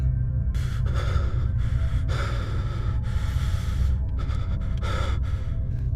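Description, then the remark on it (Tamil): Heavy, rhythmic breathing comes in repeated loud breaths over a steady low hum, heard over a telephone line during a night-time call where the caller says nothing. “அந்த டெலிஃபோனை அட்டன் பண்ணி ஹலோ யார் பேசுகிறதுன்னு கேட்டா ஆனால் அதர் சைட்லேருந்து யாரும் பேசலை ஆனால் அவங்களோட மூச்சு காற்று மட்டும் கேட்குது”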